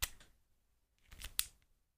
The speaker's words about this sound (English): oopsie, my pen broke. Want to hear it?